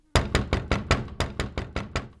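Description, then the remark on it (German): Heavy, urgent pounding on the door of a home in the richest city in America one morning, about nine hard blows in a fast, steady rhythm, loud, with no voices. “Es ist kein normales Hämmern und überhaupt, wer hämmert denn heutzutage noch an Türen?”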